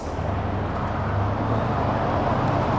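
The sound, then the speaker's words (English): A car's engine rumbles low and steady in a tunnel, echoing, a continuous fairly loud drone that holds its level throughout with no voices. “There's a car in the tunnel!”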